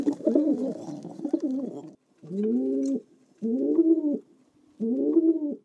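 Pigeons in Augsburg coo in a series of low, throaty, rolling calls: a longer burst of overlapping cooing followed by three evenly spaced, moderately loud coos, with no talking.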